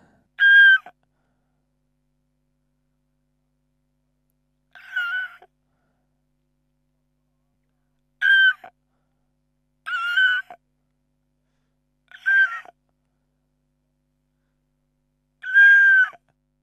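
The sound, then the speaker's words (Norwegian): A voice imitates a lizard with six short, strained squeaky cries spaced a few seconds apart, each rising and wavering, fairly loud with silence between them. “Imitasjon av øgle.”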